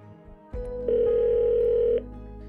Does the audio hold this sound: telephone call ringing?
yes